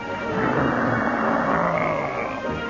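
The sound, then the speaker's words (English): Planes coming back overhead: a steady, broad roar of aircraft engines drones on for the whole stretch, swelling slightly and holding loud without pause. No voices are heard. “You can hear the sound of those planes coming back.”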